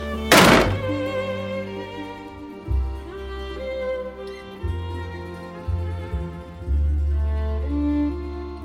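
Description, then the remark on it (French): A single heavy thud, like something striking a door, lands sharply early on, followed by a steady tonal hum and low sustained notes that continue to the end. “C'est pas la porte d'entrée, ça Non, toujours pas, non.”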